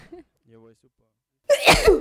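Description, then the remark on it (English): A brief murmur of voice, a pause, then one loud sneeze bursting out sharply and trailing off over about half a second. “Gesundheit.”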